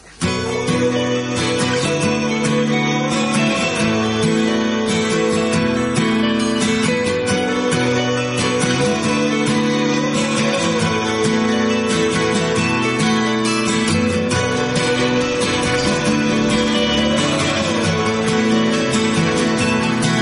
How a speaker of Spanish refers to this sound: Vamos con un poquito de música mientras aclaran la voz, ¿eh?